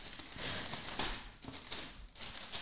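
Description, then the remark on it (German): Crinkly rustling of gift wrapping paper, a steady papery crackle with several sharper crunching bursts as it is handled and torn, no voices present. “Ach, das wird eine Raschelfolge, ne?”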